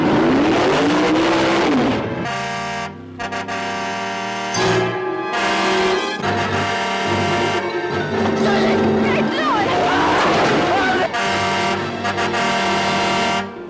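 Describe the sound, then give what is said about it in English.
A car engine roars loudly, its pitch climbing and dropping as it revs, with only brief dips in a continuous, powerful drone. “There was no driver in the car.”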